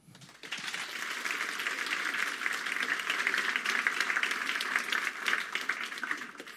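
An audience at an evening talk event breaks into steady applause for the speaker being introduced, many hands clapping in a dense, continuous patter that starts abruptly and holds at an even, fairly loud level throughout, with no voices over it.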